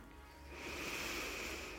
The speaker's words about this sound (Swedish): Vi börjar med ett djupare andetag in.